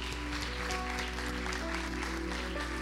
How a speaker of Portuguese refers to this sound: Aplauda o nome de Jesus.